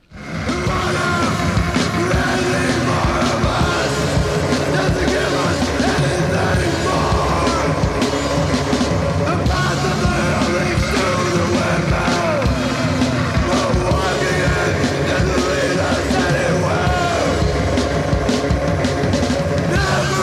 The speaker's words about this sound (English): The other plays electronics and shouts. You know, it's a but they're a metal band. They're right. just a guitarless metal band. Okay. And I think they have a really impressive sound.